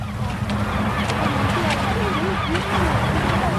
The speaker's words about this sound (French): Vous entendez Ceci est le son de quelqu'un qui se noie. Une personne qui se noie ne crie pas et n'agite pas les bras.